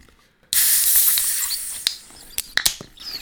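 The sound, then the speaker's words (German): A beer can with a floating widget is cracked open with a sudden sharp hiss of escaping gas that fizzes loudly as the beer foams up, then fades into foamy crackling with a few small clicks and pops. “weil durch dieses Floating Widget eben dann die Schaumbildung gefördert wird und es könnte sein, dass die Dose sprudelt.”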